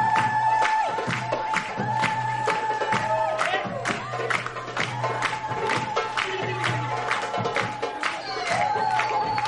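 Steady rhythmic hand clapping keeps time with lively music and a crowd's voices at a festive wedding celebration in a synagogue, where guests dance in traditional style; the claps repeat regularly throughout.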